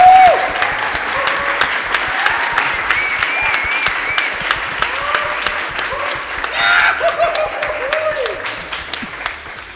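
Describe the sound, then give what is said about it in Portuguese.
A crowd applauds a woman with dense, steady clapping for about ten seconds, while voices cheer and let out rising whoops over the top, swelling briefly near the end. “Ei, um salve de palmas aí para essa mulher, pelo amor de Deus.”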